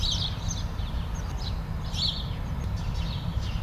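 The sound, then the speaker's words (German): Birds sing in a garden, heard from a living-room window, with bright chirping phrases repeating every second or so, over a steady low rumble of street traffic in the background. “Die Vögel im Garten, im Hintergrund rauscht die Straße.”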